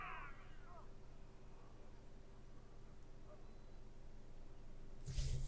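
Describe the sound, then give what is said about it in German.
A cat lets out one short, complaining meow right at the start as it is grabbed, then only a low steady hum remains until a sudden thump or rustle near the end. “Das funktioniert immer richtig gut, wenn man eine Katze einfach packen will.”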